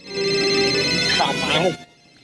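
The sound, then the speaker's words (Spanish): A cell phone ringtone plays loud, a steady electronic melody lasting nearly two seconds with a voice briefly over it, then cutting off abruptly. “Si en este momento suena tu celular y miras que es tu ex, ¿contestas o no?”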